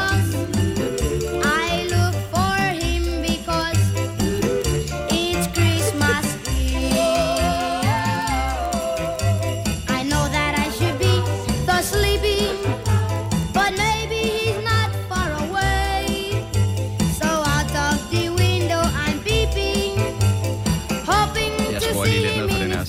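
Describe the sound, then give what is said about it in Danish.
A Christmas song, part of a medley of Christmas songs, plays from a computer steadily with a regular beat, a pulsing bass line and bright, jingly melody on top. It stays loud and continuous, with no voices. “nu går jeg bare totalt i uh, øh, medley herover med øh, julesang”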